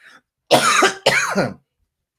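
Two loud, harsh coughs in quick succession, each a broad noisy burst lasting about half a second, close to the microphone with no talking around them.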